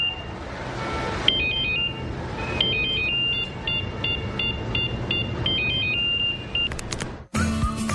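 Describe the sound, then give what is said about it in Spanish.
A mobile phone ringtone in a Movistar advertisement plays a repeating electronic melody of bright alternating tones, loud, over a dense rumbling background, ending abruptly before a burst of noise. “Si pensaste que sonaba tu celular, es momento de cambiarte a un smartphone.”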